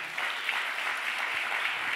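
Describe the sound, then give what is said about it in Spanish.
A crowd claps steadily for two seconds in loud applause to the Lord, a dense, even wash of many hands with no pauses, fairly loud throughout and no voices rising above it. “Cuánto le un aplauso fuerte al Señor.”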